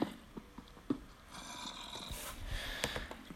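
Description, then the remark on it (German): Raspy, guttural zombie groans in a video game overlap in a steady murmur that keeps growing louder, with a few sharper snorting bursts. No clear speech is heard. “Mit dem ganzen Zombie-Gestöhne hier.”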